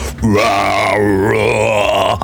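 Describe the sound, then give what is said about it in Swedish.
A voice imitates a metal growl: one sustained, raspy, guttural roar lasting about two seconds, loud and steady with a slight pitch dip in the middle, with no other talking. “Vi growla, säger growla.”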